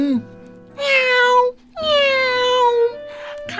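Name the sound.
wild cat meowing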